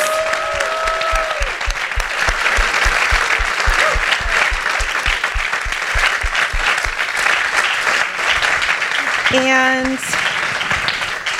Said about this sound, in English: Again, if we could just give a round of applause.